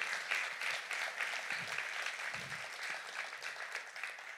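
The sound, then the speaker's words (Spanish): A church audience applauds steadily, many hands clapping in a dense, even wash of sound that holds at a fairly strong level throughout, with a few faint voices mixed in. “Así que darte un aplauso porque tú le estás diciendo al Señor, tú eres primero.”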